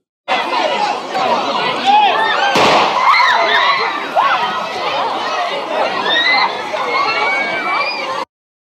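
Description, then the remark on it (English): A single sharp gunshot, fired to disperse crowds at the central railway station in Kiev, Ukraine, cuts through the loud, dense clamor of a large crowd shouting and chattering, which keeps going around it. “At Kiev's central railway station, shots were fired to disperse crowds.”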